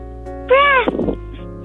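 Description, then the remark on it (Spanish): A child's voice gives one short, high, rising-and-falling meow in imitation of a kitten, ending in a breathy, rough trail. It is fairly loud against a quiet background. “Es como un gatito que estaba peleando con el perrito.”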